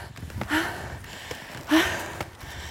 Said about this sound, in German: Ja, ich brauche mehr Luft zum, zum Laufen. Ich kann beim Laufen nicht schwätzen. Alles klar. Das passt mir eh gut, mal aufzusteigen, ohne zu ratschen. Weil ich schnauf selber ohne Ende.